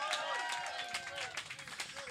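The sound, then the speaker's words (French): An audience applauds a magician with steady, dense clapping throughout, mixed with cheering voices and some talking over the noise, moderately loud. “Tout le monde ensemble, bonne main d'applaudissement”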